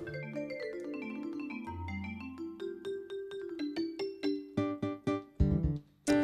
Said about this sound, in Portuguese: Marimbas, ó.